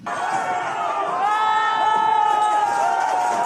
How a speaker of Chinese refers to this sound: 透过影片也可以看到，有民众朝警方投掷玻璃瓶，引来附近居民拍手欢呼。